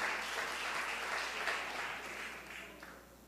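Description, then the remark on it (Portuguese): A church audience applauds the Lord steadily, a dense wash of many hands clapping at an even, moderate loudness that tapers slightly toward the end, with no clear speech over it. “Vamos aplaudir ao Senhor, irmãos.”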